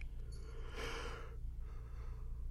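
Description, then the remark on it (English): A person yawns once: a long, breathy inhale swelling then trailing into a softer exhale, fairly quiet, with a low steady hum underneath and no talking. “Listen, this movie got me yawning.”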